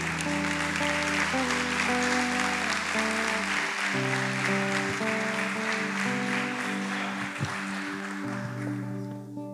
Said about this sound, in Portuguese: Que Deus te abençoe. As palmas louvam o Senhor.